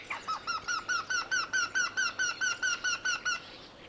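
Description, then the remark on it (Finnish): A Eurasian wryneck gives its loud, ringing call: a steady series of about fifteen nasal, slightly whining notes, evenly spaced at roughly four per second, clear with no other sounds. “Käenpiika ei rummuttele. Se ilmoittaa itsestään kiikittämällä kovaäänisesti.”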